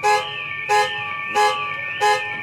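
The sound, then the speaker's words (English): A car alarm blares loud, a steady electronic tone punctuated by four regular honking blasts about two-thirds of a second apart. No voices are heard. “We got loads of them. Car alarms,”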